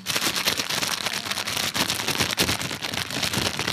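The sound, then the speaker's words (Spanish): Dense, continuous crinkling and crackling from a stiff plastic bag being worked steadily, imitating soft rain with a fine, pattering texture, fairly loud with no voices. “Una lluvia suave se puede hacer con una bolsa de plástico un poco rígido.”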